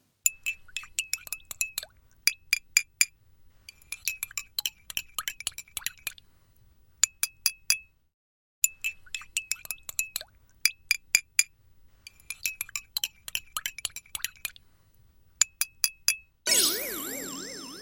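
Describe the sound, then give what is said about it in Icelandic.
A teaspoon stirs in a cup, making quick bright clinks against the sides in several bursts of rapid ticking separated by short pauses, with no one talking; another sound abruptly cuts in at the end. “Þetta var hljóðið í teskið sem verið er að hræra í botla með.”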